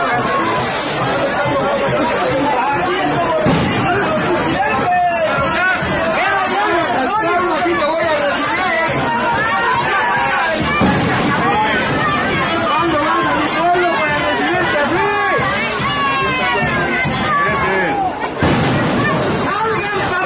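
A large crowd outside the National Palace, trying to get in, shouts and chatters nonstop while several sharp bangs of tear gas canisters being fired at them burst out at irregular intervals through the commotion.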